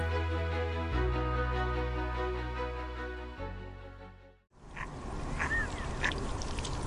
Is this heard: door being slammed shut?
no